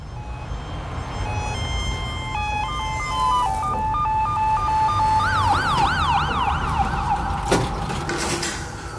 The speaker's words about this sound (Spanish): Sábado de madrugada. La ambulancia trae a una chica y el médico me la presenta como alcoholizada.